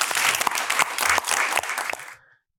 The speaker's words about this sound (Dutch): Mag ik een heel warm applaus voor Gershwin